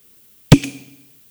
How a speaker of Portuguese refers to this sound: Vou abrir a cerveja aqui, vamos ver se ela faz o barulhinho.